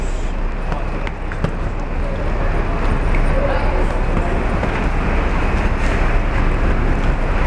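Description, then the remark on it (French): Ambience at the largest Paris airport, with its huge terminals and shuttle buses to terminal 2B: a steady, fairly loud engine rumble and broad hum that never lets up, with indistinct voices murmuring in the background. “Et voilà, voici le plus grand aéroport parisien, ses immenses terminaux et ce bruit incessant.”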